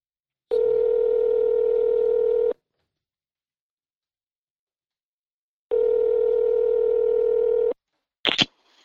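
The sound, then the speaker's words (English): A telephone tone sounds while a call is placed: two steady, buzzy two-second tones separated by a long silent pause, followed by a brief click at the end. No one speaks. “I'm going to do your phone.”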